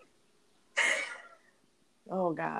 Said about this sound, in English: Did you hear that? That's my cat meowing at me aggressively to take her outside. Shout out Cheetah.